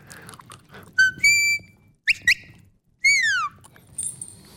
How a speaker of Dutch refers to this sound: Nou, dit is een, eh, een fluitje voor de border collies. Hiermee stuur ik mijn honden aan.